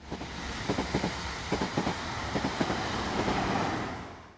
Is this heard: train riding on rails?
yes